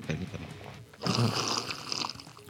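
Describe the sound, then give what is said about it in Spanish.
A loud, airy slurp as someone sips a drink, a hissing burst lasting about a second after a quieter, murmuring lead-in, then tapering off. “Un sorbido más para el Club de Sorbedores, lo mejor de todas las, las, las, asociaciones.”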